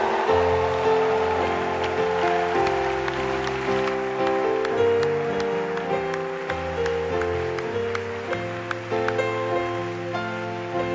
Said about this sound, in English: If you are excited as I am and ready to receive the man made from God, precious unto us, to deliver the precious words of God, then stand on your feet, put your hands together, and with a shout, let us welcome our own